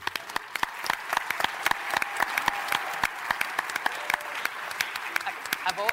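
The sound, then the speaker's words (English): An audience applauds steadily for the first female program director of WBT radio, many hands clapping in a dense, continuous patter that holds at an even, moderate loudness for several seconds. “I've always been female, so I feel funny getting applause for that.”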